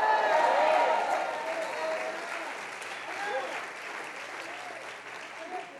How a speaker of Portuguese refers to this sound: Eu sei que ia ser mais efusivo essa salva de palmas.